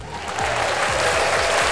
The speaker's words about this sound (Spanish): Gracias por el aplauso.